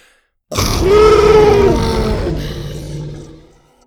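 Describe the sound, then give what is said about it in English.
A single deep, rasping roar of a little red T. rex bursts out suddenly, growling and wavering with a tonal snarl near its start, holding loud for about three seconds before trailing off into a throaty rumble. “He watched the little dinosaur lower its menacing head and let out a spit riddling roar from its fanged mouth.”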